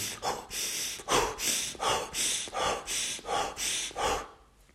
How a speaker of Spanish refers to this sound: Haz un ejercicio de noche, haz lo que se llama respiración acelerada, una respiración profunda, una respiración que se llama holotrópica, esto es con aire, mételo y sácalo rápido de tu cuerpo así.